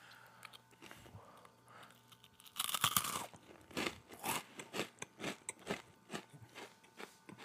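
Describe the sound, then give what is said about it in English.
Crunching of hard, sturdy cheese crisps: one loud, sharp bite, then a steady run of rhythmic chewing crunches, with no talking. “you could hear the crunch on these bad boys, like how sturdy. I mean, way harder than you would imagine.”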